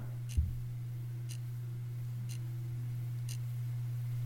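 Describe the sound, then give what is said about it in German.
Faint, steady ticks of a brown mechanical alarm clock at night, roughly one per second, sitting under a low constant hum, with a single soft thump near the beginning and no voices. “aber es ist alles nachts aus und dafür ein schöner brauner Wecker und der tickt.”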